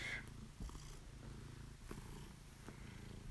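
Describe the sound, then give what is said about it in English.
A gray tabby cat purrs steadily, a low continuous rumble with a soft rhythmic pulse, with a few faint rustles over it and no talking. “the wonderful gray tabby cat.”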